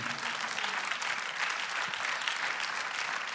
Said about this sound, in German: Wie gut ist dieser Gott? Ja, lass uns ihm einen Applaus geben.